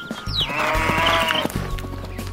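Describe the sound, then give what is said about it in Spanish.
A single sheep bleats loudly, one long wavering baa lasting over a second, with faint low rumbling underneath and no talking. “Aparecieron los camellos, las cebras, la gallina, el gallo, la oveja y los demás animales que hoy existen.”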